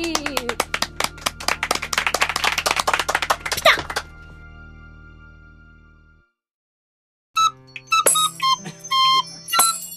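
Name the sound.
hand clapping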